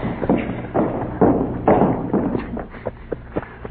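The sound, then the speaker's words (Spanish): Horse hooves clip-clop in a loose, uneven rhythm, a string of hollow knocks over a low rumbling background, moderately loud, with no one speaking. A soldier is riding the horse. “¿Oyes? de a caballo.”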